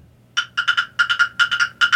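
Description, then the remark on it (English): A person mimics a horse with a quick series of short, hollow clopping sounds made by mouth, grouped in uneven bursts of two and three, fairly loud, with no talking. “I'm gonna try to make the horse sound”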